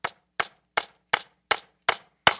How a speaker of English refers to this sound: So I'm going to put in the first nail.